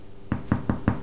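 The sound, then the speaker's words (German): Four evenly spaced knocks on a small freshly baked trial loaf of bread just taken out of the oven, as a knock test, each a dull, hollow thump, fairly quiet, with no talking. “Der Klopftest?”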